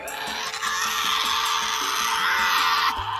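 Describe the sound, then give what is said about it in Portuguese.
A Tasmanian devil lets out a harsh, raspy screech mixed with growling, one continuous loud outburst lasting about three seconds before cutting off abruptly. “Segundo a tradição popular, os seus grunhidos são tão horríveis que parece um diabo a gritar.”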